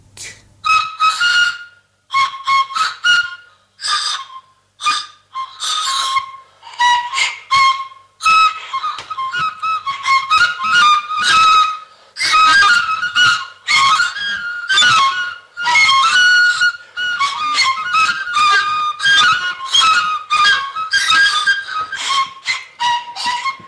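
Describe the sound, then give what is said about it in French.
Music made of shrill, whistle-like tones in short, irregular phrases, with frequent brief pauses, loud and close, and no voices. “Mais au surplus, ces manipulations d'idées m'apparaissent peu fécondes, et j'aimerais beaucoup mieux vous faire entendre un peu de musique.”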